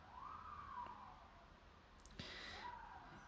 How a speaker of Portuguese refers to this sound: Talvez neste momento vocês estão ouvindo a mesma coisa que eu, que é uma ambulância, e nos dá medo.